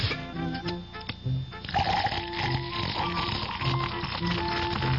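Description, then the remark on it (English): Budweiser beer pours steadily into a glass, a continuous rushing gurgle that builds into a foamy fizz, with soft tonal music playing underneath. “Now, take that wonderful Budweiser head of foam, for instance.”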